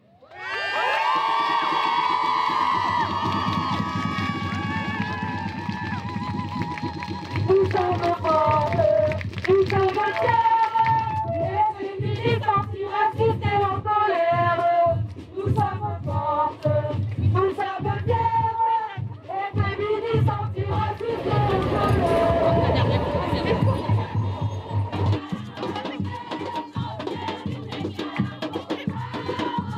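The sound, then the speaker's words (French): A dense crowd of about 2,000–3,000 people at a feminist night march in Paris, opening the 8 March feminist strike, cheers and shouts continuously, with high excited voices rising over a dense, loud wall of chatter and whoops that never lets up. “Et ces quelques images ne sont que, que quelques extraits hein, de la soirée parisienne qui avait défilé une foule dense d'environ 2-3 000 personnes, nombreuses et déterminées”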